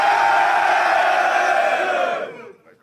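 A live audience at a rap battle event cheers and shouts for Sin City, a dense sustained wall of voices that holds steady for about two seconds before quickly fading out.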